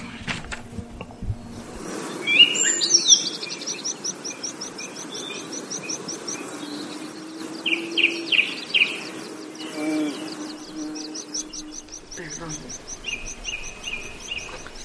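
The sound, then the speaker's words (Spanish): High, repeated chirps and trills of city-dwelling birds fill the scene, some sharper calls standing out in short bursts over a steady background hum with faint insect-like buzzing. “Con esta celebración se trata la sensibilizar la población sobre la importancia de estas aves que suelen vivir en las ciudades.”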